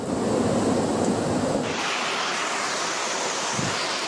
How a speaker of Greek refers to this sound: Ποτάμια λάσπης κατακλείζουν τους δρόμους. Τα ορμητικά νερά παρασύρουν ό,τι βρίσκουν μπροστά του. Οι δρόμοι έχουν μετατραπεί σε σαρωτικούς χυμάρου.